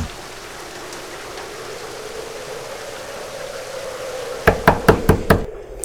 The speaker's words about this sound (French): J'ai entendu qu'on frappait à la porte. Ou bien l'ai-je rêvé Cela semblait réel toutefois. Ça n'entre pas, ça ne veut pas entrer, ça vient frapper à la porte.